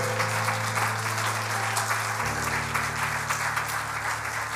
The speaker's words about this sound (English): Would you clap your hands one more time to the Lord and give him praise today?